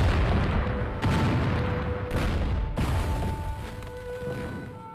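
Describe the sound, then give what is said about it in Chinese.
A series of heavy explosions from a minefield in fog, about three sharp blasts in quick succession, each followed by a deep, loud rumble that barely fades between them. A faint steady tone hums underneath, and no one speaks. “雾气里传来的爆炸声，让迷龙打消了跳出去追的念头。”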